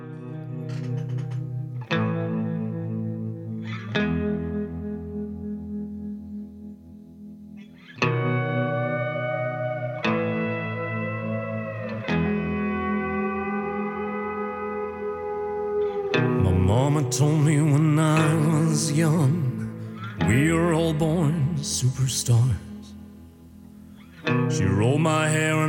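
A requested country-style song plays on the radio: rhythmic strummed chords and sustained melodic lines with heavy echo, swelling into a fuller, brighter arrangement around the middle before easing back.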